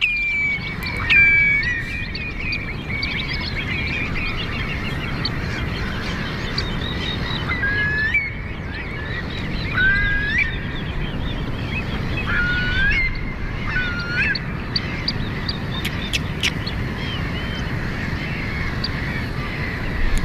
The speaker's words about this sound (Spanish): Estamos en la ría de Santoña, en la bajamar, escuchando el bramido, el bramido del mar al fondo y las aves limícolas aquí en primer término.